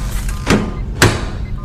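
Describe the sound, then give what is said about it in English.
A time chamber door opens into a laboratory with two sharp mechanical clunks about half a second apart, over a steady low machine hum, with no voices. “then opens the chamber door and emerges into the laboratory.”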